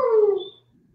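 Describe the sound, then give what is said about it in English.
A single short dog howl, sliding downward in pitch and fading out after about half a second, followed by quiet with no talking. “sounds like he wants to sing as the song of his people.”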